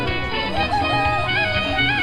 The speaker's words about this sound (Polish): Tak jest, kogut pieje. kuku, czyli kurczaki. Bo kuku to kurczak w języku Swahili.